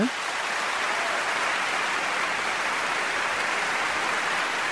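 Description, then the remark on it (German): A TV show's studio audience claps steadily for several seconds at Leonardo DiCaprio's wish, applause for the Seychelles, a dense, even wash of applause that stays loud throughout with no voices rising above it. “Achtung, liebes Showpublikum dieser Sendung hier. Einmal Applaus bitte.”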